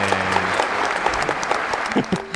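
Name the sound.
canned applause sound effect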